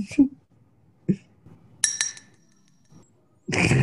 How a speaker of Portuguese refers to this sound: E chegou a hora das nossas taças da semana. Tchim, tchim, tchim, tchim, tchim, tchim.